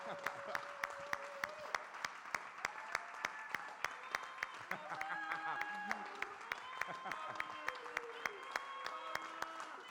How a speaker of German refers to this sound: Hey, geben wir einmal diesen Applaus.